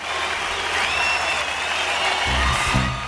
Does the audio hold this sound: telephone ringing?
no